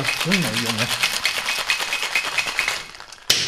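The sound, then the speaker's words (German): Ice rattles rapidly inside a cocktail shaker in a steady, fast rhythm of loud, sharp clattering, briefly under a voice at the start and ending with a sharp knock. “wird geshaked, oder wie?”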